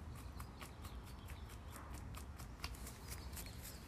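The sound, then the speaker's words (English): A dog, Mac, moves around, its claws tapping and clicking on a hard floor in a quick, irregular patter over a low steady background hum, with no one talking. “My dog will will join me on the podcast on occasion.”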